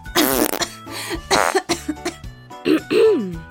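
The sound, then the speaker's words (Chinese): A mother coughs to cover the sound of passing gas: a run of loud, rough coughs in uneven bursts, some short and some drawn out, with a throaty, voiced edge and brief gaps of quiet between them. “妈妈放屁的时候都会用咳嗽来掩盖放屁的声音。”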